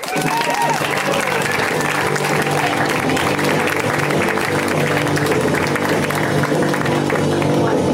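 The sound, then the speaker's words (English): A crowd applauds steadily and loudly for the full eight seconds as a comedian visiting from New York is introduced, dense clapping with scattered cheers and whoops rising over it, sustained without any break. “Please make it loud for”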